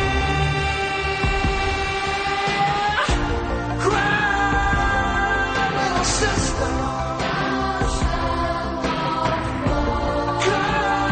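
A song from a movie soundtrack plays steadily and loudly, with dense, sustained layered tones and swelling chords shifting every second or so, and no voices talking over it.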